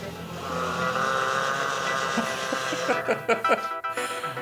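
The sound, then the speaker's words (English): Muffled banging on pipes from the floor above: a steady mechanical hum runs throughout, then several sharp, irregular knocks arrive in quick succession near the end. “Where they, they, can't be far away because we're, we're hearing them banging in the pipes.”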